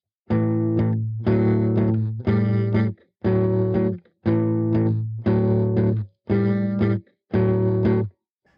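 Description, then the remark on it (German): An electric guitar plays a singer's style chord pattern: eight loud, evenly spaced strummed chords with short breaks between them, the tone thick and slightly distorted, no voices. “Aber wenn du zum Beispiel etwas im …-Stil spielen möchtest, dann begegnest du rasch Akkordbewegungen wie diese hier.”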